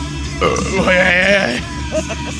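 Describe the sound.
A loud, drawn-out burp after drinking beer rumbles for about a second, with a gurgling, voiced quality and a short trailing tail, with a bit of breathy background noise around it.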